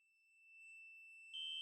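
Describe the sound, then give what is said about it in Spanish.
A shrill electronic security alarm tone rings steadily, growing slightly louder, then jumps to a sharper, louder blast at the very end, heard by a security guard in a basement office. No one speaks. “Escucha la primera alarma, pero cree que es un error del sistema.”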